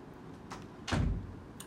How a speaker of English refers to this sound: Close the door